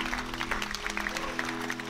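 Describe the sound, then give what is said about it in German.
Audience applause for everyone who has just raised a hand to say yes to God: a steady wash of many hands clapping, dense and continuous at even loudness for the whole two seconds, with a low sustained hum running underneath. “lasst uns doch erstmal jedem, der gerade die Hand gehoben hat, einfach einen fetten Applaus geben für diese gute Entscheidung.”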